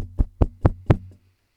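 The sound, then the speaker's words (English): Four loud, evenly spaced bangs on a roller garage door, each a booming metallic thud with a low rattling resonance that hangs between hits before fading out. “There's a loud banging on the roller garage door.”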